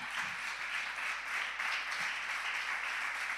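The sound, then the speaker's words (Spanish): A crowd applauds the Lord steadily, a dense wash of many hands clapping at once, loud and even throughout with no voices rising above it. “¿Cuántos lo creen y pueden darle un fuerte aplauso al Señor?”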